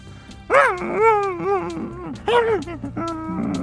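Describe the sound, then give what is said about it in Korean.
A dog on a walk yelps and cries out in pain after stepping on calcium chloride spread for snow removal: a run of sharp, high-pitched yelps and bent whining barks in quick succession, fairly loud, with no talking. “이번에는 아파서 고통에 짖는 거지요.”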